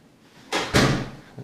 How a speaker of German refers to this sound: da ging die Tür auf und wieder zu.